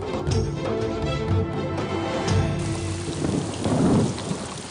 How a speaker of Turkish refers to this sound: Bayazıt'la Hürrem bardaktan boşalırcasına yağan yağmurda yola devam ediyorlar. Ne zaman dinecek bu yağmur?